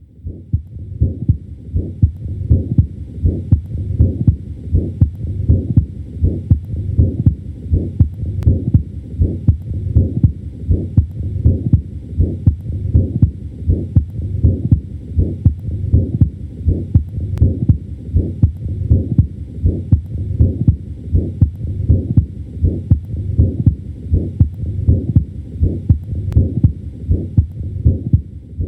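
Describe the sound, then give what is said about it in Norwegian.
A steady, rapid heartbeat, each beat carrying a continuous harsh whooshing holosystolic murmur lasting from the first to the second heart sound, caused by a ventricular septal defect (a hole in the wall between the heart's ventricles). It repeats evenly with no talking. “Dette er eksempel på en lyd som representerer et hull i ventrikkelskilleveggen, en ventrikkelseptumdefekt eller VSD.”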